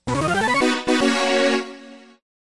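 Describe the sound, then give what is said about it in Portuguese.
A short burst of bright FM-synth music from Burning Dragon Plus, a PC-98 shoot 'em up game developed by Wiz and released in Japan in 1994: a quick run of stepped notes leads into a held, buzzy chord that fades out after about two seconds, with no voices. “Na prática, um jogo do tipo shot up ou seja, um jogo de navinha. Esperamos que vocês gostem. Então, curtam o som”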